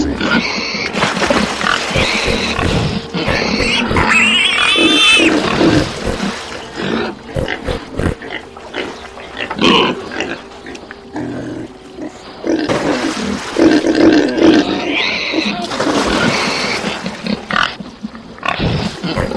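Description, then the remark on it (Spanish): A herd of pigs grunts and squeals in a loud, chaotic jumble that runs nearly unbroken, with a few sharp high squeals and rough, roar-like snorts rising above the din. “Y salidos los demonios del hombre, entraron en los cerdos y el gato se arrojó de un despeñadero en el lago y ahogóse.”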